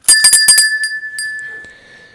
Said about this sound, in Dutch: En eh, ja, dan eh, doe ik nou mijn nieuwe bel rinkelen. Want dan gaan we naar het volgende, naar de rubriekjes.